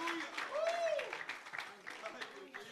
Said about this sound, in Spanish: Denle un aplauso, haga, brinque, muévase, ríase. Haga algo, suéltese.